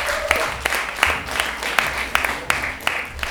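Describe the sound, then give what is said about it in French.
Audience applause: a dense, steady wash of many hands clapping, with sharper individual claps popping through at a fairly regular rhythm, moderately loud, with no talking over it. “Ah, allez, on applaudit.”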